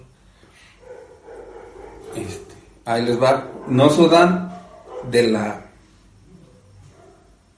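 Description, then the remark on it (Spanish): A dog vocalizes in a few loud, harmonic bursts that sound like grunting barks or whines, overlapping a man speaking steadily in the room. “ya ves, está diciendo perro, tiene razón.”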